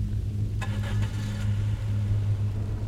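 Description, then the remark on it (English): A small truck's engine rumbles low and steady as the vehicle pulls away onto a road toward a village at dusk, with a few brief rattling clunks early on and no voices. “But the priest lent them his small truck and gave his blessing for their journey.”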